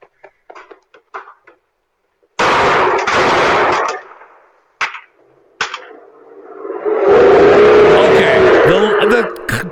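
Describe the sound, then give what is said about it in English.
A porta potty blowing up: brief voices, then a sudden loud explosive blast that roars for about a second, followed by a few sharp bangs and a long, loud roaring rumble with a high squealing whine. “Listen to the explosion. Let's do it again.”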